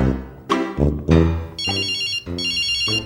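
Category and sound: signal or alarm, telephone ringing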